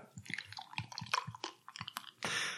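Clinks and knocks of a bottle and glass being handled as someone pours themselves a drink, followed by a steady rush of liquid pouring into the glass. No one speaks.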